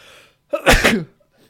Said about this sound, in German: Ich sage ja immer, ein Nieser kommt selten allein.